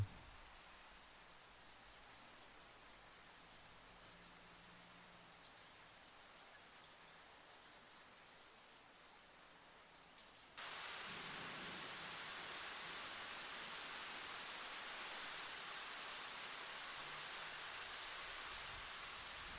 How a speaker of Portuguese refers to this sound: essa chuva começa a aumentar, a aumentar.